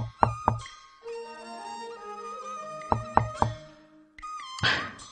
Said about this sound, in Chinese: 此时啊，他已经心力交瘁，他用尽浑身的劲儿，艰难的敲了敲门。